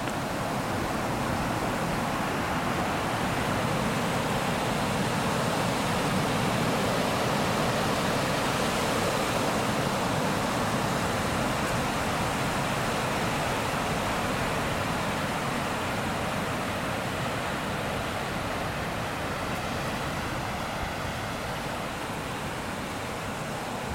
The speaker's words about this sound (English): So let's listen to some ocean sounds. Hear the sound of the ocean.